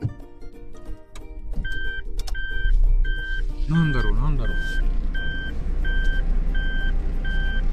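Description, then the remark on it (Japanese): A car engine starts with a low rumble as a man moves his parked car to another spot, followed by a steady run of high, evenly spaced reversing beeps repeating about once every second, with his brief muttering near the start. “ちょっとごめんなさい、せっかく聞いてくれる、んだとしたらすげえ変なタイミングで今車移動するんで申し訳ないです。”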